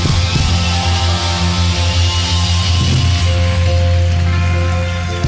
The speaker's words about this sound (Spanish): en esta hora llenos, llenos de su poder, llenos de su amor, llenos de su presencia, pueden aplaudirle bien fuerte al rey.